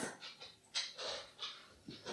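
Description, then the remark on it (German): A dog pants in quick, breathy bursts, about five or six rhythmic huffs with short gaps between them, fairly soft and with no talking. “Es ist so, dass ich der Hund ist hier gerade.”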